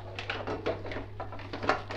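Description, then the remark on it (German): A frying pan is set down on a stove to cook a quick meal of zucchini, tomatoes and egg, with a run of quick metallic knocks and scrapes, fairly soft, over a steady low hum. “Jetzt wird einmal eine Pfanne”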